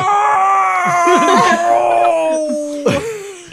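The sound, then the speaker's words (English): A man lets out a drawn-out, exaggerated moaning wail as he acts out an orgasm, its pitch sliding down, punctuated by sharp gasping breaths, loud with no other talking. “By the way, that was, him supposed to, he was supposed to be orgasming. Gasping and orgasming.”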